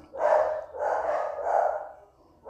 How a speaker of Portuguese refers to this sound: Cachorro na vizinhança é a melhor coisa que tem.